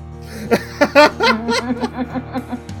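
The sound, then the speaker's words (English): A man imitates Curly's goofy, cartoonish chuckle from the Three Stooges, a rapid run of about a dozen nasal, staccato bursts, loud, with no other talk around it. “I'm going to be making Curly's a.”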